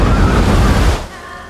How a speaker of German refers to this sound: So schnell wie eine Herde Pferde rollte eine Gezeitenwelle durch die Kanalisation. Die Welle war einen Meter entfernt.